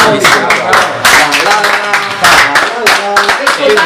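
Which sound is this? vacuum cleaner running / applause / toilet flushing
applause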